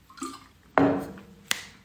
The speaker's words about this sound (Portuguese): Deixa eu beber um gole d'água.